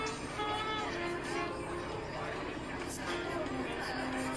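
A busy bar on Beacon Street full of overlapping crowd chatter, many voices murmuring at once with no single clear speaker, a steady dense hubbub filling the room.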